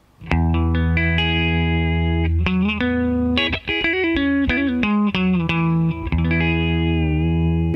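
A compressed electric guitar with a bright, Fender-like tone, played on its single-coil pickups in the two position, plays a string of picked notes and chords, steady and even in loudness, with no talking over it.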